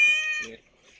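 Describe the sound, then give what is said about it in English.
A single loud, sustained meow from a female cat, held on one steady high pitch and ending abruptly, with a brief low voice at the end. “does meow.”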